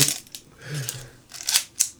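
A camera shutter fires several times while being checked for the so-called Canon cough, giving crisp, dry mechanical clicks at uneven intervals, with a faint low murmur in between and no clear speech.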